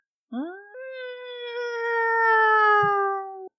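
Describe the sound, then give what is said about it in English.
A single drawn-out wailing tone, like a siren, swoops up at the start, then holds steady and slowly sags in pitch for about three seconds, heard in a video said to capture a Bigfoot scream. It is clear and uninterrupted, with no talking. “That was a damn siren, dude.”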